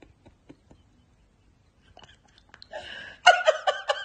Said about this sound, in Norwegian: er det en promp? Sorry. Altså, for det første så prøver du å ta en silent. Jeg trodde seriøst veggen redde ned.